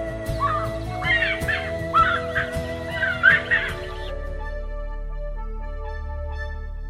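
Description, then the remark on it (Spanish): A Ypacaá wood-rail's monotonous, clamorous evening call, loud raucous squawks repeated in rapid bursts for about four seconds over a steady low drone, which continues alone after the calling stops. “Y así fue desde entonces por valles y collados, se escucha particularmente en la hora vesperal el canto monótono y alborotado. Yipaca.”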